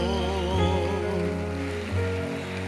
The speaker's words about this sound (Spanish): Denle el aplauso fuerte a Dios. Aleluya.